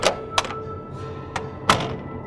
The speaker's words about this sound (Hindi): फिर जेब से एक पिन निकालकर ताला खोला और दरवाजा खोलकर अंदर आ गए